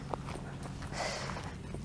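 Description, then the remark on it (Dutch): Soft, uneven footsteps crunch along an outdoor path beside the Scheldt river, quiet, over a steady hiss of wind and open-air background noise. “Ik geef even mee dat we nu langs de schelden lopen.”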